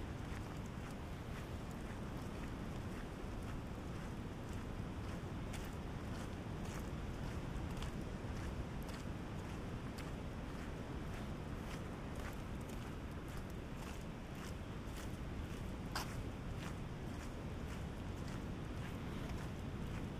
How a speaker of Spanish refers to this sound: Vamos a dejar un poquito de silencio antes de despedirnos. Que escuchéis el sonido del mar a nuestra derecha.